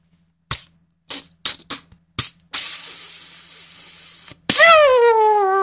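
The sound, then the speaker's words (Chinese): A voice imitates a whistling rocket firework of the 'chuan tian hou' type: a few short breathy bursts, a long steady hiss, then a loud, harmonic whistle that slides down in pitch. “窜天猴，对，窜天猴。”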